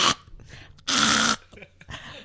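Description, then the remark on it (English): A person imitates trying to cough up hair caught in the back of their throat, like a cat hacking up a hairball: three harsh, raspy throat bursts, the middle one longest and loudest, with breathy rattling between them. “There was a few times where like I had like hair caught in the back of my throat, ah! and, I was like trying to cough it up like a fucking um, like a fur ball.”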